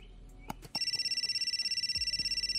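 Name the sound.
telephone ringing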